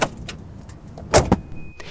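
Car doors close with two solid thumps in quick succession, preceded by faint clicks and handling noises, followed by a brief thin electronic tone inside the vehicle, as two people get into a car in Kitzen, Saxony, Germany, to drive out to a farmer's fields.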